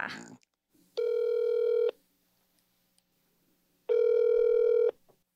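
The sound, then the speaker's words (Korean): A telephone ringback tone sounds twice as a phone call is being connected, each steady electronic burr lasting about a second with a long quiet gap between, clear and fairly loud with no talking over it. “그러면은 전화 연결을 한번 시도해 볼까요?”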